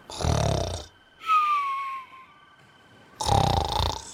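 Heavy snoring of exhausted sailors at night in a small port town: three loud, rasping breaths in a slow rhythm, the middle one carrying a thin whistling tone, with short quiet gaps between them and no talking.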